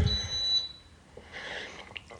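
A key finder receiver, triggered by pressing its hand transmitter, beeps with a thin, high-pitched electronic tone, held for under a second at modest volume, followed by soft rustling handling noise.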